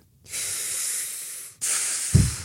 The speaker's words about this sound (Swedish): Vi tog ett djupt andetag.